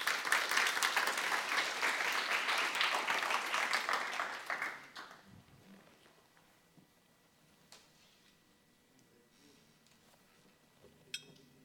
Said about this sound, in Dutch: Geef hem een heel warm applaus.